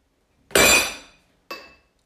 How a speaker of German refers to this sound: macht unseren Teller kaputt und dazu noch die Butter und alles Geschirr, was sie gerade benutzt.